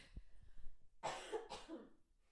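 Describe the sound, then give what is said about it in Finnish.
Two harsh coughs in quick succession, each a short raspy burst about half a second apart, after a moment of faint low rustling. No one speaks. “Nyt mun on pakko taas yskiä.”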